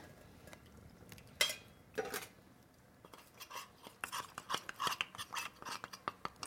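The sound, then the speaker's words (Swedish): A spoon stirs potato starch into a little water in a separate cup, for blueberry soup, making scraping clinks, a few scattered louder knocks at first, then a quick, steady run of light taps against the sides. “Och det blandar jag först ut med lite vatten i en egen kopp så att den inte klumpar sig.”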